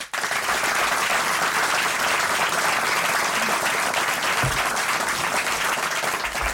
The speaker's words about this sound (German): Herr Spitzer, Ihr Applaus.